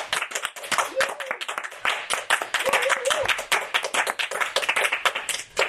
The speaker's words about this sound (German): Deswegen müssen wir mal alle zusammen klatschen, ganz laut.